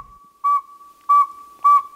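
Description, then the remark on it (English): A tiny saw-whet owl, about eight and a half inches long, calls with three clear, evenly spaced whistled toots at one steady mid-high pitch, each short and loud, with a faint steady tone lingering between them and no voices. “And far from spooky, the tiny saw-whet owl is just eight and a half inches long and weighs less than a stick of butter.”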